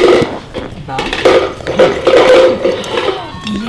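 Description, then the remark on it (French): A lid is pressed firmly shut on a container, with a few sharp clacks and knocks of hard plastic or metal, while voices murmur in the background. “Hein, on ferme le couvert. Dans le fond, c'est bon parce que tu l'as attiré là, vers ce jeu-là.”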